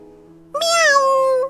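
A single loud meow from Krister, a kitten, on the ground below a tree. It lasts about a second, with a bright, harmonic-rich pitch sliding downward toward the end, heard alone over a faint low background hum.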